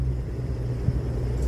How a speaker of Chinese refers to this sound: 大家有没有听到？这是我在徒步的路上，火车经过的声音。我现在在台南